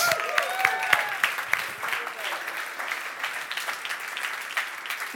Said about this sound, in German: Riesenapplaus für das Licht.